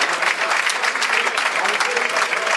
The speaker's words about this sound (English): Get a good round of applause, Aiden O'Brien. He's done well today.